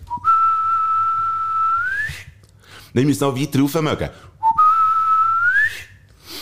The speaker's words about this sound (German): Das ist der äh, Pfiff, wo sich äh, die eine Bande erkennt dabei, weil es, es handelt ja, es spielt ja in dieser in diesen Bronze und, und so.